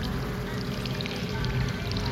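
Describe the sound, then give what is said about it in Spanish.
Water gushes out of a crack in a brick wall in a steady, continuous rush, loud, a dense splashing flow that holds even throughout with no pauses and no voices. “De la grieta por la que el hada se había ido empezó a brotar agua.”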